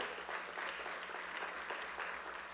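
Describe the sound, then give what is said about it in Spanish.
A church audience applauds the Lord steadily, a dense wash of many hands clapping at an even, sustained level with no voices standing out. “Denle un fuerte aplauso a Él si quiere.”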